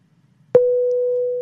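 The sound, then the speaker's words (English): A car's seatbelt warning, triggered by the seatbelt being put on and off, sounds as a single electronic tone that starts abruptly and holds steady at a mid pitch, fairly loud, with no voices over it. “Um, that was me telling you to put your seatbelt on and off 16 times.”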